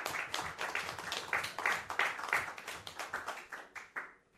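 A crowd applauds with a dense, steady patter of many hands clapping, holding strong for several seconds before thinning out toward the end. No one speaks over it.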